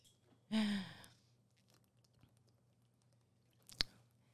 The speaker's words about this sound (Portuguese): Quer beber uma água? Quero. Bebe uma aguinha, recupera.